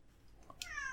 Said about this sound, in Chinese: 因为猫开始叫了，猫开始叫了。这只猫是潘托拉。